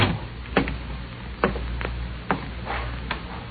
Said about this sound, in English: When the cab pulled up at the address, it was a rooming house out on Clay Street. The note I had said third floor rear, so I went up there and knocked. There was no answer, so I went in expecting to find anything.